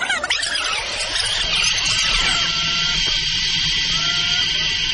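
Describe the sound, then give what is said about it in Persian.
A person screams in long, high-pitched wails for fun while dangling by a recreational rope from a very great height in Indonesia, partly drowned by a steady roar of rushing wind and rumble that fills the whole recording. “فکر میکنید صدایی که میشنوید مربوط به چیه به نظر میرسه فردی فریاد میزنه و به کمک احتیاج داره اما نه این فرد داره تفریح میکنه اون هم با آویزون شدن از یک ارتفاع فوق العاده بلند در اندونزی البته فقط به وسیله یک تناب تفریحی”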